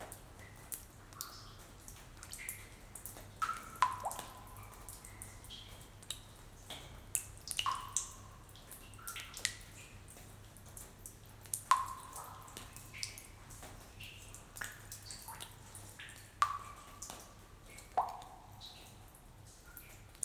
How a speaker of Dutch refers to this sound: Luister naar het spetteren van de vallende druppels